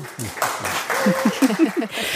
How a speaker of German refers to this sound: Meine Damen und Herren, jetzt können Sie alle klatschen.